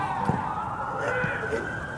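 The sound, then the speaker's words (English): An ambulance siren wails in a steady, sustained tone at moderate volume, holding on without a break for the whole stretch, with a faint murmur of background noise underneath. “It's not airplanes, it's ambulances.”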